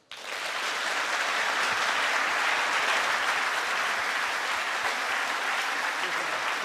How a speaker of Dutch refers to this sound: En ehm, ik denk niet dat we afscheid nemen zonder nog een hartelijk applaus voor Peter Altmaier.